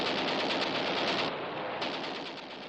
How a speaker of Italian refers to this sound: Cadaverella scheletrosa si depila lo scheletro con il rasoio elettrico color rosa.